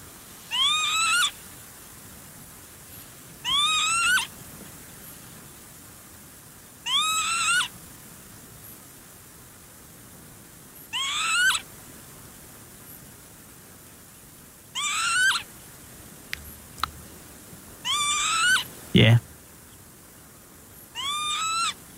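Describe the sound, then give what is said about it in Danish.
Northern lapwing calls: seven bright, wheezy rising 'pee-wit' cries repeating about every three to four seconds over quiet background hiss, with a brief low thump near the end. No one speaks. “Det er jo Viben.”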